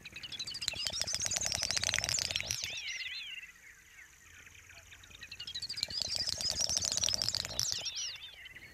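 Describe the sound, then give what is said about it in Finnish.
Two bursts of rapid bill-clicking from great snipes at a lek at the edge of a wet field, at most 100 metres from a road. Each burst is made by a bird tapping its bill at an accelerating pace and runs into high, rasping, twittering calls, with a brief quieter gap between them; clear. “Se syntyy siitä, kun lintu naputtaa nokkaansa kiihtyvään tahteen. Sitten naputus päättyy jännään kitisevään rahisevaan ääneen.”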